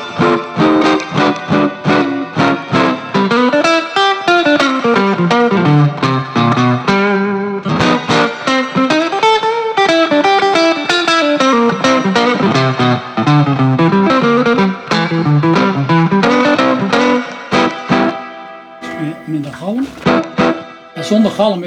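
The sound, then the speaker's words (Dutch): A gritty, distorted electric guitar plays continuous bending melodic lines, loud and up close, with a touch of reverb and no pauses for about twenty seconds. “Lekker smerig soundje.”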